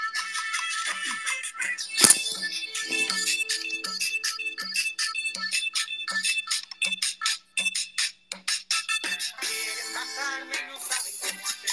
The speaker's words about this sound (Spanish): Uh, perdón, estaba escuchando música, chicos.